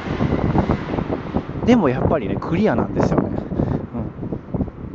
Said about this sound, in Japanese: ちょっと電車の音がすいません